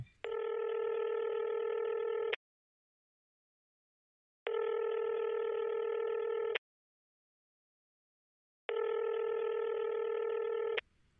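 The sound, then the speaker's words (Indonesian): A telephone ringback tone repeats three times, each steady electronic burst lasting about two seconds with roughly two-second silent gaps between, clear, with no one talking. “Uh, coba telepon ya.”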